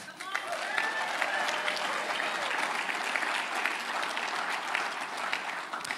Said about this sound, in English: yeah, you can clap.